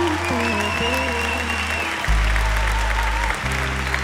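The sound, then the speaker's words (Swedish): Audience applause for the band, a steady dense clatter of clapping running the whole time over loud band music with sustained bass notes and a bright melodic line on top. “Jag måste berätta, av er var bandet en världens största applåd.”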